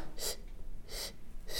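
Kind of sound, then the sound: vocal imitation, imitated heavy breathing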